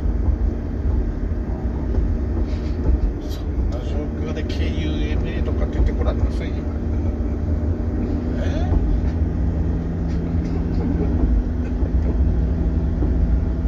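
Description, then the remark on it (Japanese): A steady, loud low rumble of a rail car with a roof and side doors rolling along the tracks runs throughout, with people talking over the continuous mechanical drone. “あれえ今車はこれ屋根ついて横にもドアついてたけど、トロッコってある程度無防備でしょ”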